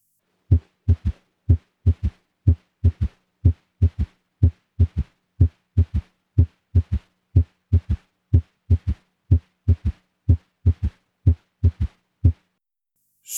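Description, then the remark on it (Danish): Heartbeat heard through a stethoscope with an S3 gallop, the low-frequency third heart sound heard together with S1 and S2 in a three-beat rhythm: soft, low thuds in steady repeating clusters, clear, with no voices. “S3 kan i sammenhæng med S2 og S1 lyde sådan her.”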